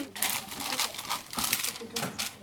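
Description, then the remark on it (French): Baking paper rustles and crinkles in several irregular bursts, with crisp, papery crackles rising and fading as it is handled and folded to line a cake mould. “Nous, on a mis du papier cuisson”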